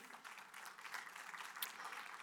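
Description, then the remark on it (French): An audience applauds steadily, a dense wash of many hands clapping at once that holds an even level throughout, fairly soft, with no voices standing out. “c'est un applaudissement dans les maritimes qui s'est rendu une heure après, mais la vérité de Dieu prend du temps à descendre des fois.”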